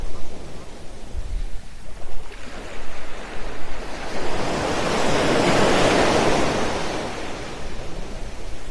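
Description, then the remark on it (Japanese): Ocean waves roll in and break on a beach, building to a loud, hissing surge midway before slowly washing back out, with no voices present. “波音だけ流してます。”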